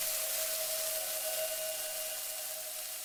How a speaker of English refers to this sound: As he thought more about that childhood memory that would shape the rest of his life, the meat, a choice cut, strikes the pan and erupts into white noise.